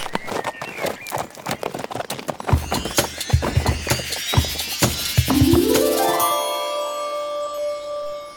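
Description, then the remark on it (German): Rapid, rhythmic hoofbeats of a galloping horse carrying a rider drum along steadily, then a horse lets out a loud, high whinny that rises and trails off at the end. “Halte dich an meiner Mähne fest. Im Galopp geht's schneller.”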